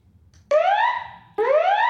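A fire alarm blares loudly, sounding two rising electronic whoops in quick succession, each tone sweeping upward in pitch with no voices over it.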